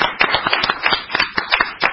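Applause of sharp, crisp claps arriving in a quick, fairly steady rhythm, loud and continuous for a couple of seconds with no voices over it.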